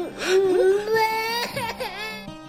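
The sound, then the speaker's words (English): A voice crying in a continuous, wavering wail with sobbing pitch bends that rise and fall, fairly loud, lasting a couple of seconds and breaking into short whimpers near the end. “Don't cry. Don't cry.”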